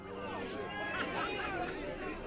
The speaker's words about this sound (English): There would be excited cheers and chatter in the crowd, camera clicks and desperate cries from children, I can't see it! Where is it?